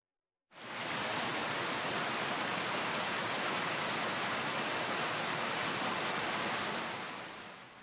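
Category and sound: nature, heavy pouring rain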